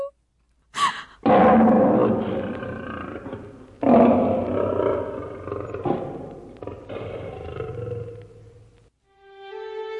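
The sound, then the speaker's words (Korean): A tiger roars loudly in a series of long, rumbling bursts, followed by a brief silence and then a soft tonal chime at the end. “그렇게 호랑이는 오누이의 어머니를 잡아먹고야 말았어요.”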